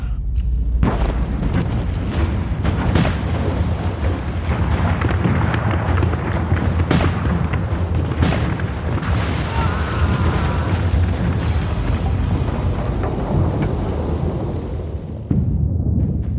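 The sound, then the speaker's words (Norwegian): Heavy naval cannon fire from Tordenskiold's fleet at Dynekilen on a summer morning around eight booms continuously, deep blasts piling into a dense, rumbling barrage of explosions that fills the scene from start to finish. “Innekilen var fylt av røyk, død og tordenlyder fra kanonene.”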